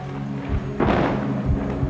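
A sudden thunderclap bursts in and rolls on with a deep, low rumble over a steady hiss of rain, loud, with no voices, as the storm keeps going without easing.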